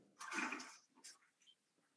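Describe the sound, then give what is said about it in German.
A brief, rushing toilet flush swells for about half a second, then trails off into a few softer gurgles and splashes. It sounds fairly faint, with no voices. “Wenn es die Toilette fällt, dann passiert das hier.”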